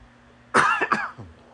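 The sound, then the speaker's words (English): A loud cough: one sharp burst followed by a couple of quick rasping after-pulses, then quiet. No one speaks. “Excuse me while I cough.”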